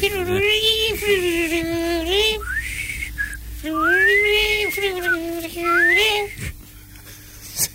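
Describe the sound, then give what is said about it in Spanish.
A person whistles a short tune imitating a knife-sharpener's panpipe call: several sliding phrases that rise and fall, fairly loud, with brief pauses between them. “Mira, era, porque él mismo se puso a silbarlo y era y era como la, la, música del afilador, ¿viste?”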